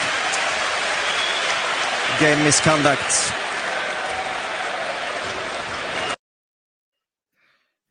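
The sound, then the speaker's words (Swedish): Home fans and the cheering section cheer in a Swedish hockey arena, a loud, steady roar of crowd noise lasting about six seconds. A voice briefly announces a game misconduct penalty over it before the sound cuts off abruptly. “Nu hörde jag inte vad han sa här inne i arenan eftersom hejarklacken och hemmafansen jublar så, men Thomas Berglund får lämna.”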